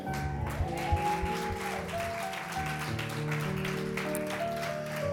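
A steady patter of applause from the Iglesia Café church in Allentown, many hands clapping at once, runs the whole time over sustained, held musical chords that shift slowly underneath. No one speaks.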